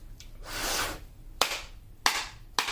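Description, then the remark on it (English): Tarot cards being shuffled as a pre-shuffle before a reading: a soft papery swish, then three sharp, crisp slaps of the deck at slightly uneven intervals, with no voices. “And yeah, I'm doing the pre shuffle right now”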